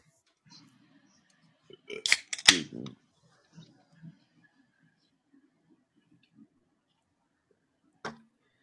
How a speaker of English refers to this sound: that was the sound of a Mountain Dew cracking, not a beer, my friends.